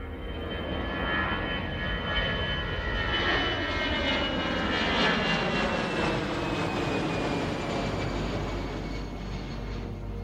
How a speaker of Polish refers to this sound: Zapnijcie pasy, startujemy.